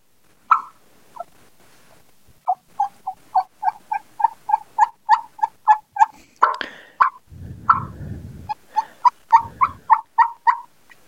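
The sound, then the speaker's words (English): A turkey call used by a hunter sounds a steady series of sharp clucks and quick yelps, clear, imitating a turkey waking up in the roost early in the morning, with a brief rustling noise partway through; no one talks. “As I'm waking up, I'll add clucks and some yelps in there.”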